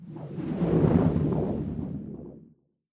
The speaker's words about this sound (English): So that odd little sound you just heard is called a stinger. It's part of the Garage Band suite